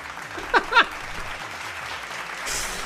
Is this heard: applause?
yes